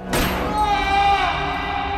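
A single sharp gunshot bursts out loud, then trails into a long, ringing, reverberant tail that hangs in the air for the rest of the moment.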